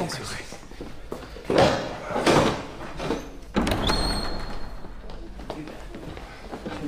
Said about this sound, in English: The Queen asks sanctuary of the church. Will you dare refuse it? Open the door.